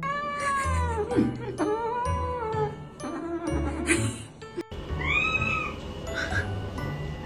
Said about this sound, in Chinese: 那这一期的开头呢，我们先有请各位小朋友们给大家喵两句，打个招呼。